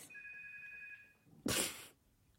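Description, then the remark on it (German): A telephone rings with a steady, high electronic tone lasting about a second, followed by a sudden loud burst of rustling or clattering noise. “Ey, nein, jetzt läutet da das Telefon.”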